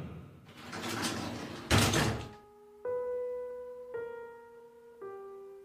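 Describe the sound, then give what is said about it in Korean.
The shop door of a raw-fish restaurant (Iden Hoetjip) slides open with a rough, rattling whoosh, followed by three clear electronic chime tones ringing out one after another, moderately loud, with no talking. “난 조금은 뻔뻔한 상상을 하며 작게 웃고는 설레는 마음으로 가게 문을 열었다.”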